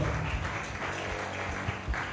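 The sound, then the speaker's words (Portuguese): An audience at a church service applauds Jesus steadily, a dense wash of many hands clapping at once that holds at an even, fairly loud level throughout, with no voices over it. “Dê um lindo aplauso a Jesus, porque Ele é digno.”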